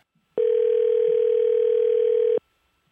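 A steady telephone dial tone while placing a call to a fan drones for about two seconds, loud, starting and stopping abruptly with near silence around it.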